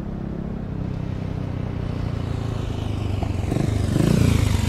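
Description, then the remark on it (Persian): A motorcycle engine runs steadily, a low rumbling idle that swells a little louder toward the end, with no voices; a boy sits on the motorcycle, stopped in front of a burned-down, ruined cafe building. “پسرک سوار بر موتور جلوی ساختمان سوخته و ویرانه کافه ایستاده”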